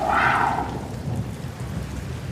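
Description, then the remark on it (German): Steady, dense rain hisses throughout while a deep, rolling rumble of thunder sits underneath, with a brief brighter whoosh at the very start; no voices. “Und du schaust ein bisschen in den Regen hoch und hast kurzzeitig das Gefühl, es wäre da jetzt irgendwas vorbeigeflogen.”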